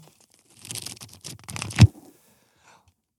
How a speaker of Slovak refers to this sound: Ktorá Biblia šušti krajšie? No, novšia či staršia?